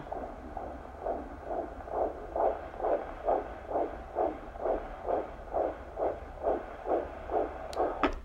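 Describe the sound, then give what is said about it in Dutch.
A fetal heartbeat of around 130 to 140 on a doppler monitor: fast, steady whooshing pulses, roughly two per second, loud, with a faint hum beneath and no talking. “rond de 130, 140. Oké. Klinkt goed hoor.”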